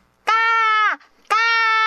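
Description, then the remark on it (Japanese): A voice mimics the caw of a crow that flew overhead while riding a bicycle: two loud, harsh, nasal calls, the first long and sliding down at its end, then a short pause before a second call begins. “頭の上を、うん、カラスが、うん、ガー、ガ”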